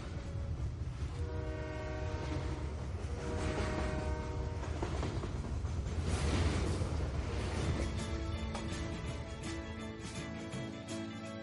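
A train rolls past, a steady rumbling roar with rattling wheels and sustained horn-like tones swelling in the middle before easing off. No one speaks.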